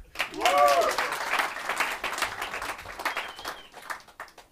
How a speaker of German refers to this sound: Applaus